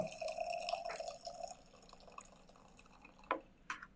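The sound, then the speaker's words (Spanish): Water trickles into a container, with a faint steady pour at first followed by a couple of distinct drips near the end. It is quiet, with no talking. “Esto es algo interesante poco de agua.”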